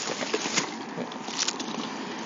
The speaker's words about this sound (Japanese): なんかちょっと雨が降ってる